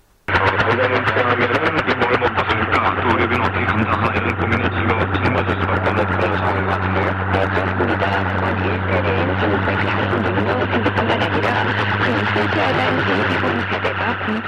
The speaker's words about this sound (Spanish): en la misma frecuencia hay una señal de jamming procedente de Corea del Norte. Y en la misma frecuencia aparece, unos años después, una emisión norcoreana potentísima que no emite nada salvo ruido, con la intención de fastidiar a los británicos.